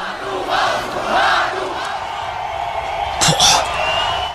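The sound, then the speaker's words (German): A crowd of nearly 10,000 spectators at the fence of a container shouts insults in broad, swelling waves, their massed voices rising and falling in a rough chant-like rhythm, with a sharper burst of yelling near the end. “Die ganze Masse schreit mal, hey Sluddy, und dann im Abwechseln die ganze Masse, ja, schreit Manu raus”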